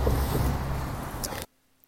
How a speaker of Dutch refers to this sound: Of, sorry, er komt een hele grote vrachtwagen voorbij.